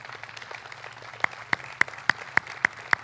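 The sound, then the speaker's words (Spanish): An audience applauds in a dense, steady wash of clapping, while in the second half a series of sharper, evenly spaced claps cuts through in a regular beat. “Un aplauso a Dios y a su palabra.”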